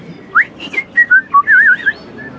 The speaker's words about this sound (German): der Kellner in dem kleinen Eiscafé, pfeift vor sich hin.